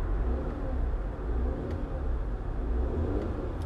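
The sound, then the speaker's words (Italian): A car engine revs while idling in neutral, a deep rumble that swells and eases a few times over several seconds, with no voices. “Guarda, se a me piacesse fare questi rev del motore, un cambio automatico non lo prenderei mai.”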